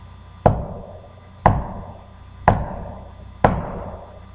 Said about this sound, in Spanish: Y después de llorar, se escuchaban los golpes en la pared.